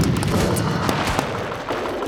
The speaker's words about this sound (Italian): Ci fu uno sbuffo, poi un grande botto seguito da una serie di scoppiettini.